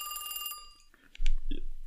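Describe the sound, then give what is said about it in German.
A telephone rings once with a bright, tonal electronic burst that lingers briefly and fades, followed by a few louder bumps and rustling noises. “Ich werde eben gerade mal angerufen.”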